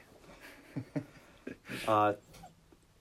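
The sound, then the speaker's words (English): A single loud, tonal dog bark cuts in, preceded by a couple of short, softer yips, with faint talking behind it. “There's a dog. That's a dog.”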